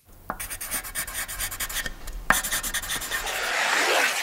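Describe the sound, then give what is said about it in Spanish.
Engineers' pencils scratch and rasp across paper as they draw a new car prototype for the first time, in quick, rhythmic, steady strokes, with a few sharper taps and a softer, hissing sweep toward the end. No one speaks. “Los sonidos de los lápices de los ingenieros que dibujan por primera vez un prototipo nuevo de coche.”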